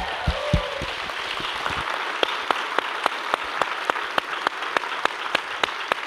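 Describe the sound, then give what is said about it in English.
An audience at the House of Blues claps steadily to thank the venue, a dense wash of many hands with a few sharper individual claps standing out in a loose rhythm, preceded by a brief cheer at the start. “Give them a round of applause for being here tonight.”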